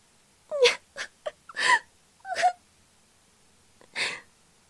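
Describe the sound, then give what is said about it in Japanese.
A child cries while walking up, sobbing and whimpering in a handful of short, broken bursts, fairly clear, with a brief pause before one last wailing sob. “すると今度は子供が一人泣きながらやってきて”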